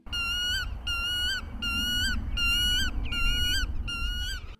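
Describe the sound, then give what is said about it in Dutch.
A black-tailed godwit calls five times in a steady series, each shrill, nasal note evenly spaced and clear over a low background rumble, with no talking. “En dan lekker utto, utto, utto roepen in het bos, want dat is de reden dat de grutto zijn naam heeft.”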